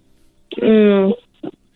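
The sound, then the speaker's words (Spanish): A person imitates a dog with one drawn-out, bark-like vocal call, then a brief second yelp, fairly loud against a quiet background. “¿Puedes hacer el ruido de un perro?”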